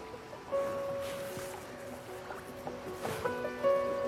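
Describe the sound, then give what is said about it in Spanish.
Soft sloshing and dripping as measuring probes are lowered into the water of Lake Elementeita to take readings of its chemical composition, with quiet splashes and gurgles; faint steady electronic tones hum at the start and end. “Así que voy a sumergir las ondas en el agua.”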